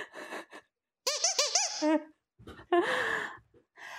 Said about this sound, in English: the round begins when the donut squeaks.